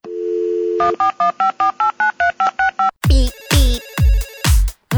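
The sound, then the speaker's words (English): A steady telephone dial tone gives way to a quick run of about ten evenly spaced keypad beeps, followed by louder, harsher rhythmic ringing bursts. No one speaks. “All right, with that being said, let's go ahead and dial in.”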